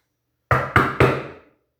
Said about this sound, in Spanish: Tres golpes resuenan en la maciza puerta de entrada.